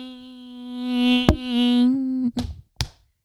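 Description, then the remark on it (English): A voice holds a thin, steady buzzing note for about two seconds, imitating a mosquito's whine, broken by a sharp tap midway and followed by a couple of quick knocks. “I just sounded like that one fucking mosquito that you keep hearing and you're like mm-hmm.”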